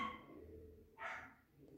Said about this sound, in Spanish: Lo siento si escuchan esos perros, son los perros de mi vecina.